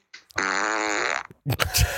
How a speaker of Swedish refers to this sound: Oskuldsfis är det